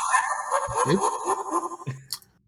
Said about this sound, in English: That's my phone.